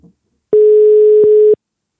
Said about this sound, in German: Ich müsste es ja dann schon Tuten hören, ne? Hörst du es Tuten? Ich höre es so ein bisschen Tuten.